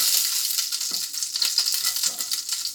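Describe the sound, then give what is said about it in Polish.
Steady sizzling of fat frying meat patties in a pan, a dense crackling hiss with small pops scattered throughout and no voices. “Słyszę, że tam tłuszcz jeszcze skwierczy, więc chyba nie będzie.”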